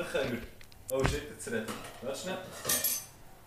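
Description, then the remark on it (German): Metal cutlery clinks against a bowl while someone eats soup: a sharp knock near the start, then a few lighter scattered taps, with muffled voices murmuring underneath. “Warte, ich bin da bei Suppe, darum gehört man mich jetzt vielleicht gar nicht”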